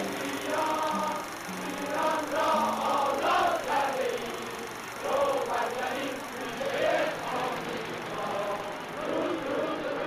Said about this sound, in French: Et il réagit justement à l'écoute de l'accueil triomphal réservé à Roménie quand le 1er février 1979, il prononce son premier grand discours à sa descente d'avion après 14 ans d'exil.